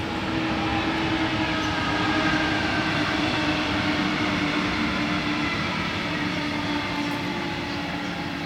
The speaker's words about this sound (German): Jetzt ist jetzt gerade ein Zug gekommen.